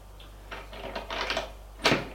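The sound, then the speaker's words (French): Someone knocks on a door: a quick, uneven cluster of light raps, then a pause and one louder, sharper thump. No voices. “On frappe à la porte, Amélie fait entrer”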